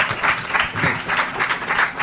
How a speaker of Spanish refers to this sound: Fuerte aplauso nuevamente para Jura y Master K. Thank you.